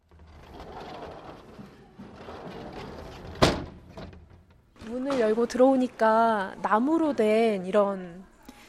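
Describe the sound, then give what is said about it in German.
The old wooden sliding entrance door of a wooden railway station in Korea, opened in 1933, is opened, rumbling along its track for a few seconds and stopping with a sharp knock. Then someone starts talking. “Das verwitterte Schild stammt aus dem Jahr 1933, als der Bahnhof eröffnet wurde und der Eingang zum Bahnhof besteht noch aus einer alten hölzernen Schiebetür.”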